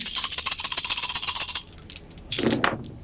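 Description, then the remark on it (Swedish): Dice rattle steadily for about a second and a half, as if shaken in a cup, followed by a brief pause and a sharp clatter as they tumble onto a hard surface. “Så slå ett slag”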